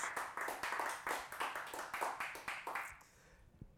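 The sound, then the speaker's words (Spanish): A crowd claps for Jesus, clapping together in a steady, quick rhythm for about three seconds. The sharp bursts are loud and regular, then stop abruptly, leaving near silence. “Vamos, un aplauso fuerte a Jesús.”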